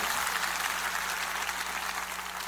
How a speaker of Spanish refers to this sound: Dale la aplauso más fuerte que puedas al Rey de Reyes y Señor de Señores. Aleluya.